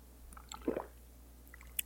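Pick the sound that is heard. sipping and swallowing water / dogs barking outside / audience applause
sipping and swallowing water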